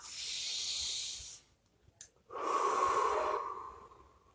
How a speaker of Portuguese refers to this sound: São esses que eu faço, alguns são esses. Respiração. Vamos respirar.